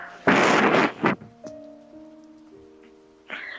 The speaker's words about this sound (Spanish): Encima que hay tremenda lluvia ahorita.